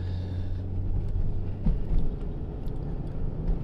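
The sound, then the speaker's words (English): Steady low road rumble and engine drone from inside a moving car, with traffic noise washing past and a brief louder swell midway; no voices. “driving you can probably hear the cars”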